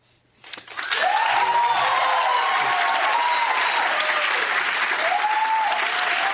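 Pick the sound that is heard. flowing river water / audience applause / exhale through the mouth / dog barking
audience applause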